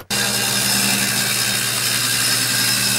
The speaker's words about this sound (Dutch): mag de zaagmachine even uit?